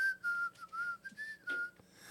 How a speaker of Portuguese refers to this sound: Meu boneco de ventríloco um pode assobiar.